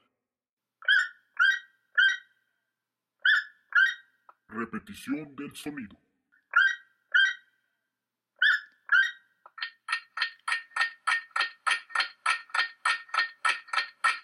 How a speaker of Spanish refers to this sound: Y la respuesta es... Sencillo, el ah, ah, y tuki tuki, el tucán. Un poco ya complicada la cosa, ¿no? El tucán, sí señores.